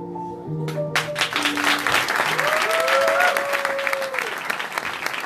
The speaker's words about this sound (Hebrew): חבר'ה, מחיאות כפיים. לכולם.